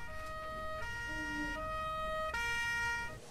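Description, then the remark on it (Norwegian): Emergency vehicle sirens wail in stepped, alternating tones, loud and steady over a low traffic rumble, with the pitch shifting several times across the few seconds. “Men sirenesangen ble raskt avbrytet av faktiske sirener.”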